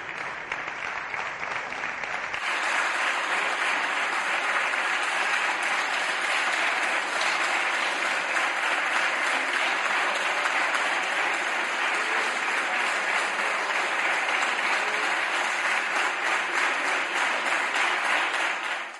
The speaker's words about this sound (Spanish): donde Salvador Illa, Carlos Cuesta, se ha llevado una ovación. Una ovación por una gestión de una pandemia que le ha costado, por la presunta negligencia del gobierno, 40.000 muertos.